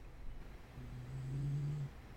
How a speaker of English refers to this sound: are snoring. I hear him. Little puppy.